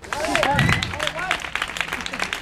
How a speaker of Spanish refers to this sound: Un aplauso para este joven y bello.